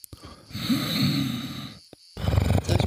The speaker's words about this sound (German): Ich schau mal, was ich da sehe in der Hängematte. Offensichtlich liegt da jemand drin, der schnarcht.